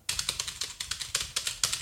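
Rapid clicking of computer keyboard keys while a voice recording is being made, roughly a dozen crisp taps in quick succession with a steady, slightly uneven rhythm, clear with no voices.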